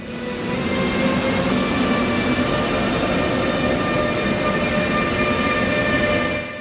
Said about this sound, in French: le premier train de nuit reliant Vienne à Bruxelles s'était lancé